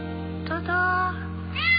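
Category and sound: animal, cat meowing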